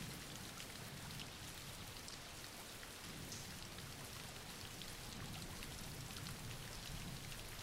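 Steady rain falls without pause, a dense, even hiss of countless drops spattering on a surface, with a soft low rumble underneath and no voices.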